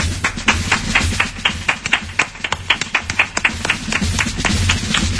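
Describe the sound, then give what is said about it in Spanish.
A few people clap together in a steady burst of applause for the candidate placed second in a Riobamba mayoral poll segment: sharp overlapping claps at an even pace with a low hum underneath, holding about five seconds without any talking. “Un aplauso para él, por favor, desde ya.”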